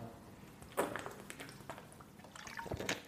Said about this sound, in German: Ich muss mal einen Schluck Wasser nehmen. So viel Zeit muss sein.